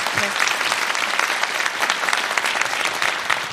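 Steady audience applause for a voice actor who read a listener's story aloud, a dense wash of many hands clapping at an even, fairly loud level for a few seconds, with a brief low voice at the very start.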